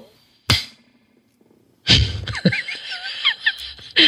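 A single sharp hand clap, made on a count of ten to sync recordings, rings out, followed after a pause by a scattered cluster of louder claps mixed with laughter and chatter.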